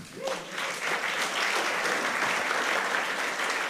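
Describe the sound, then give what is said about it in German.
A crowd applauds the Bitcoin Bros and the laser eyes: a dense wash of many hands clapping at an even, sustained level for several seconds, with no pauses and no talking over it. “Ich finde, wir sollten mal klatschen für die Bitcoin Bros und die Laseraugen.”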